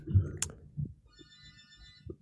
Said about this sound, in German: Jetzt klingelt das Telefon hier. Ja, lass es klingeln. Ja, lass ich klingeln.